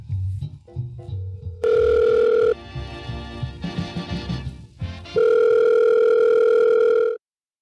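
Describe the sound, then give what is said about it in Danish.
Two long, steady ringback tones of an outgoing phone call to a man in central Herning, Denmark, loud and separated by a pause. Muffled, low background noise sits underneath, and the line cuts off after the second tone. “det er vært på FC Midtjyllands fanpodcast Sortsnak, som vi ringer til.”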